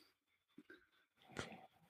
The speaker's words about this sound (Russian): у тебя чавка не какой то звучит. Ты продолжаешь кушать? Да. Ты проверь, что микрофон у тебя правильный, потому что чавка не звучит как будто от, э, от компьютера.